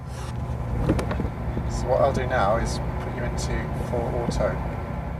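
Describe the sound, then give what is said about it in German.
A steady low mechanical rumble and vibration made by vibrators under the tires of a car in a driving simulator used to research self-driving cars, continuing throughout at moderate loudness with faint background voices and clicks over it. “Für das Geruckel sorgen Vibratoren unter den Reifen.”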